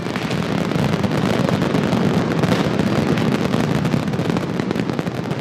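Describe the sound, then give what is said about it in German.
Dense, relentless barrage of hundreds of firecrackers, screamers and rockets exploding in rapid succession at the mascletà on the Plaza del Ayuntamiento in Valencia, Spain, a loud continuous rattle of bangs with no pauses, overwhelming, with no voices audible. “Dann werden auf der Plaza del Ayuntamiento hunderte Böller, Heuler und Raketen gezündet.”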